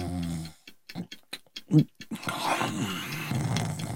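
A man snores, starting with a low droning tone, then a run of short choppy puffs, and finally a long, rough rasping snore. It is loud.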